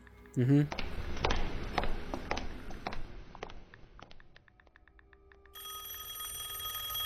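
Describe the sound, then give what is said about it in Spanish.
Footsteps and clatter give way to a telephone ringing steadily in a radio studio over the final seconds, moderately loud, with a brief vocal sound near the start. “gracias por hablar a su programa En la Oscuridad”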